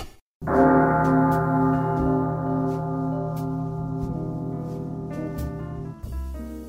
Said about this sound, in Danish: Ja, der er en grund til, at vi starter med kirkeklokkerne. Ja. Og det er fordi, at vi har sagt farvel til en af vores... Øh... Skønne, dejlige tv-profiler.